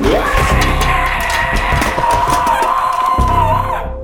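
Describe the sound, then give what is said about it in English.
A voice imitates a woman's horror-movie scream: one long, loud, raspy shriek held at a steady high pitch for about four seconds, then cutting off abruptly. “I hear her just let out this exorcist scream.”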